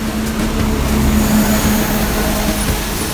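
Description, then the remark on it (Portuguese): A large bi-articulated bus engine drones steadily in the bus lane on Rua Padre Anchieta in Curitiba, Brazil, its low hum over a constant wash of wet, hissing street noise from rain and passing traffic on a rainy day, with no voices. “Os sons de fundo que você ouve neste episódio são da canaleta do biarticulado ali da rua Padre Anchieta, num típico dia de chuva curitibano.”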